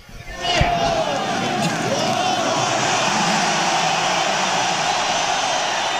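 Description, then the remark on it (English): A large crowd at a rock concert roars steadily, cheering and yelling in a dense wash of noise that swells quickly at the start and holds loud for several seconds, with scattered whoops rising above it. “We'd like to say that you're one of the best fucking crowds we ever played for.”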